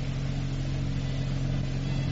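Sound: motorboat engine approaching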